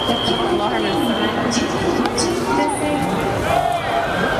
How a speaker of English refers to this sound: you're hearing an alarm, it's because an alarm system goes off whenever there's a foul ball to alert people to watch out.